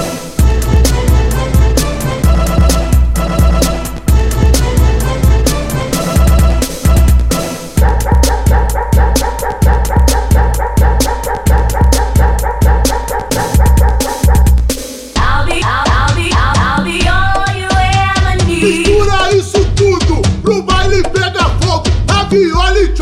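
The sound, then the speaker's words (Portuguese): A loud, driving dance track with sampled barks of a big dog chopped into the beat, the barks repeating rhythmically over heavy bass for the whole stretch, with no one talking. “Atenção, cabidão número 1, um, sampleando o cachorrão.”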